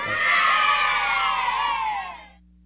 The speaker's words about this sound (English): Yay! Thank you for cheering. Woo!